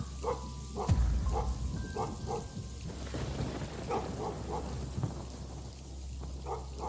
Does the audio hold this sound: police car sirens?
no